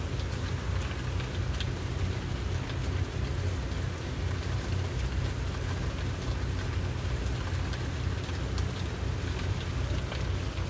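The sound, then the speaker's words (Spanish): Steady rain falls continuously, a dense hiss with scattered patter of drops and a low rumble underneath, even in loudness throughout, with no voices. “Si te estás enfocando en el sonido de la lluvia, te invito a que lo hagas de una manera no juiciosa, escuchando tono, timbre, duración, volumen de ese sonido tan particular que tiene la lluvia.”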